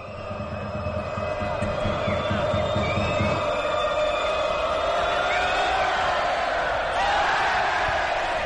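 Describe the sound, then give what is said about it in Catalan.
A loud Italian basketball crowd roars and whoops continuously in a game against Joventut, celebrating Nuaku's free throws, with high whistles and shrill cries rising above the din and a pulsing rhythmic chant underneath during the first few seconds. “Escolteu el públic.”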